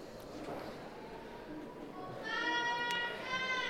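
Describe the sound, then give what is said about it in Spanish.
An audience shouts and calls out encouragement to a performing group while the stage curtain stays closed, a noisy mix of voices that swells into a louder, sustained collective cry in the second half. “El público tira de, relleno de estos momentos de silencio, animando a la agrupación.”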